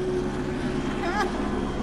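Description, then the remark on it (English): A helicopter drones overhead with a steady, loud rumble that never lets up, and a voice briefly cuts in near the end. “So, before we get into the helicopter overhead,”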